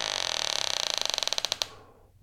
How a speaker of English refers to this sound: When no answer came, she pushed the door open and crept inside to explore.